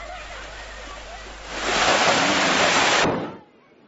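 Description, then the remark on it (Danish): A loud burst of splashing in seawater at a beach handball tournament, as girls from a handball team take their coach into the water, rises over steady beach background noise, holds for about a second and a half, then cuts off abruptly, leaving quieter ambience. “De mener også, at træneren de skal en tur i vandet.”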